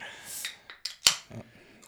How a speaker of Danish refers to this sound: Nu åbner jeg lige en sodavand.